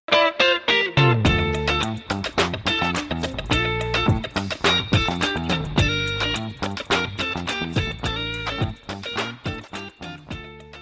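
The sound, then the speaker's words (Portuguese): A short, punchy musical jingle plays alone, with driving rhythmic beats and bright distorted synth or guitar chords at a steady loud level for about ten seconds before easing off. “Toca a vinheta vinheta aí”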